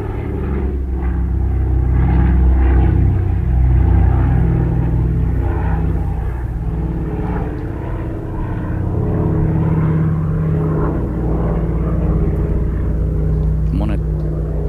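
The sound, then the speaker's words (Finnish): A twin-engine DC-3 propeller airliner's radial engines rumble steadily and loudly, a deep throbbing drone with a low mechanical beat that holds throughout. “Kuunnellaan vähän aikaa tähtimoottorien jyrinää.”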